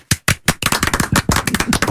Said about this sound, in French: Et il me semble que on peut tous vous applaudir.